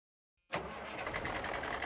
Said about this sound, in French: Le camion démarre.